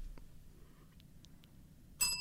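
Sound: bell ringing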